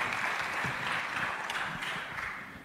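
A crowd applauds steadily as Daniel Dias is welcomed, dense overlapping claps forming a continuous, fairly loud wash that holds throughout and fades slightly at the end, with no one speaking.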